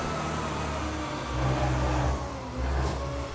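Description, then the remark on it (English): A garbage truck's engine rumbles steadily outside a building with a ground-floor restaurant whose trash it empties, its deep drone swelling twice as it revs, then settling back. No one speaks over the continuous mechanical noise. “Um, I know sometimes it works better than others, but, uh, you know, garbage trucks round here. Ugh. It really feels like they're coming by every few hours.”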